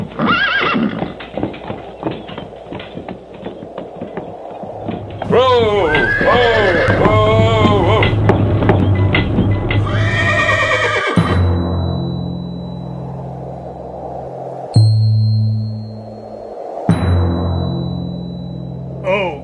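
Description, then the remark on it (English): Horses being ridden along a road through a peaceful landscape whinny loudly in long, quavering high-pitched neighs over a steady clip-clop of hooves, followed by lower rumbling and a few sharp, brief knocks. “isn't it great to ride through this peaceful landscape where the only excitement is bumping over a stone on the road?”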